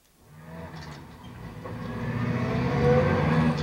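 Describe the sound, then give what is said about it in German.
A taxi drives along, following another taxi, with a steady low engine rumble and road noise that swells gradually louder over a few seconds, with no voices. “Aber ich fahre in einem Taxi seinem Taxi nach, ohne dass er es merkt.”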